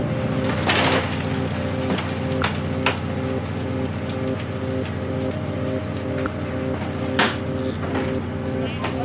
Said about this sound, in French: On entend les, euh, langoustines qui frétillent.